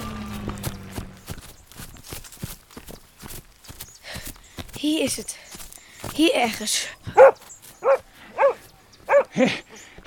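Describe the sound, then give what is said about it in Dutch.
A dog barks about five times in a quick, evenly spaced series, loud, following a stretch of clattering footsteps and rustling movement. “Hou die hond bij je”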